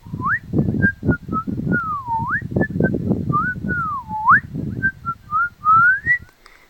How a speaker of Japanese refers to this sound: 作ったジングルから番組スタートです